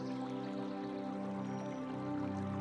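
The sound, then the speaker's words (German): Slowly flowing river water makes a soft, steady wash with faint trickling and dripping detail, quiet and unbroken for the whole stretch, with no voices. “wie ruhig der Fluss auf dieser Seite fließt.”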